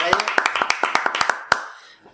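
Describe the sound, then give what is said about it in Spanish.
A short burst of audience clapping: a dozen or so sharp, crisp claps in a quick uneven rhythm, fading out after about a second and a half, with voices murmuring underneath. “Un aplauso para ellos”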